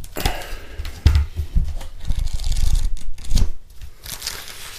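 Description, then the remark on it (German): Pages of a book on homeopathy being flipped through, a series of quick rustling swishes and soft thumps with brief pauses between them, no voices. “Und da äh, blättern wir mal.”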